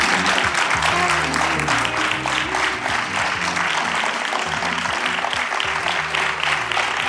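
Sustained, dense applause from an audience welcoming two guests, a deputy editor of Les Inrocks and a DJ, steady and loud for the whole stretch, with a low, stepping musical bass line faintly underneath.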